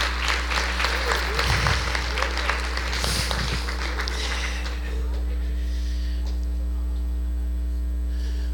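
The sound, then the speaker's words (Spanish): An audience breaks into loud, dense applause for the Lord that lasts about five seconds before fading out, leaving only a steady low electrical hum. “Denle un aplauso fuerte al Señor.”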